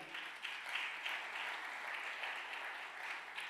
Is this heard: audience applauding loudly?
yes